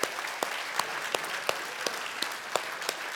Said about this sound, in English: Let's give a big round of applause to our fathers.